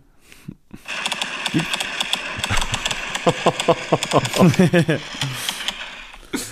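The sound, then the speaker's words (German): A fireworks battery set off at night directly in front of a hotel goes off in a rapid string of sharp bangs and crackles over a steady rumble, some flying toward a car, with voices and laughter mixed in, played back from a video recording. “wo wir in der Nacht geweckt wurden von einem Feuerwerk direkt vor mhm. unserem Hotel”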